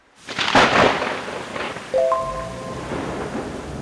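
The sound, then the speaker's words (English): Heavy rain pours steadily during a thunderstorm, after a week of heavy rain, as people drive home; a loud roll of thunder swells early on, then the downpour keeps hissing and drumming on its own with no voices. “driving home right in the middle of a thunderstorm”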